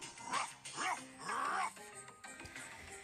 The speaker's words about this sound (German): Ja, Ruff, Ruff, Ruff soll einfach ein Hund sein, der bellt, glaube ich.